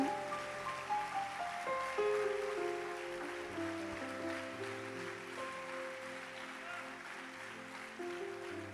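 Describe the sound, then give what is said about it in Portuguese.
An audience applauds in praise of the Lord Jesus, a dense, steady wash of clapping lasting several seconds, with sustained keyboard chords holding underneath and no one speaking. “Você pode dar um forte aplauso ao Senhor Jesus por isso.”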